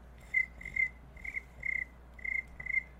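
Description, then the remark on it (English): A woman mimics a cricket with a run of short, high, trilling chirps, about six bursts in a steady rhythm, clear with no talking over them. “That is not a cricket sound effect.”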